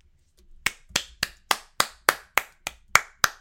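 A single person claps their hands about ten times in a steady, even rhythm: crisp, close and moderately loud, with no talking and a brief quiet pause before the first clap.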